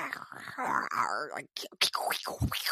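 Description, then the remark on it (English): A person vocally imitates a Bigfoot call: a drawn-out, wavering howl-like groan followed by a few sharp, rising whoops and yelps, fairly loud. “like this weird crazy noise and i was like what is that what are you listening to? And he's like, oh, just some Bigfoot footage.”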